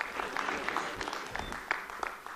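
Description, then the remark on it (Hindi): An audience applauds steadily for two people, a dense stream of overlapping claps with sharper individual slaps popping out now and then, holding a fairly even loudness throughout. “दोनों के लिए जोरदार तालियां”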